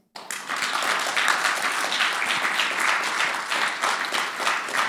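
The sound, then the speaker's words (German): A crowd breaks into sustained applause for God, many hands clapping in a dense, steady wash of noise that starts abruptly and holds at an even, fairly loud level for several seconds. “Jetzt dürfte Gott mal einen Applaus geben.”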